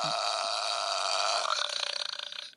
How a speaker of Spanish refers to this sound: Así, ah, así hagan de cuenta que son los eructos de la cebadina.